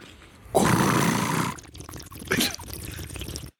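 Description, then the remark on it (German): A voice mimics a bong hit: a loud, bubbling gurgle for about a second, then a rising sucked-in breath, with no words. “Wie eine echte ähm, Bong.”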